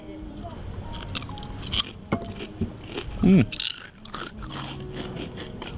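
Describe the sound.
Crunching of thin homemade fried potato chips, a run of crisp, irregular crackles and bites with a brief hum from someone mid-chew.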